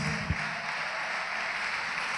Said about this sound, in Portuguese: Vamos aplaudir ao Senhor Jesus, todos que ergueram as mãos. Venham aqui para frente, peçam licença, venham aqui para frente. Venha, venha, venha. Oh glória, vamos aplaudir.